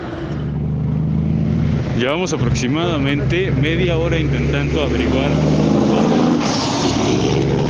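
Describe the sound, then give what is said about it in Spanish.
A steady, fairly loud rumble of car engines as cars pass on a dirt road with improvised lanes marked by orange plastic traffic signs, people walking along the other side; a person talks over the traffic noise for several seconds in the middle. “Por un lado pasan los autos, por el otro caminan las personas.”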